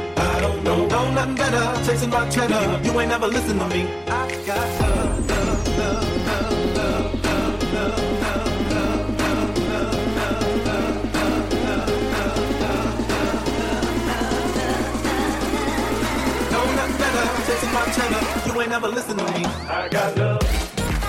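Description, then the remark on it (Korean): A loud, dense piano house dance track by a Dutch electronic musician plays throughout with a steady pounding beat, a deep bassline entering after a sweeping riser effect, and bright repeating piano chords, with no voices. “피아노가 계속 비슷하게 쓰이고 있는 게 들리시죠?”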